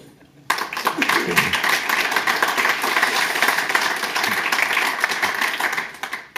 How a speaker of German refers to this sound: Und Sie sind beitragende Autorin zum fünften und sechsten Weltklimabericht Erster Applaus bitte.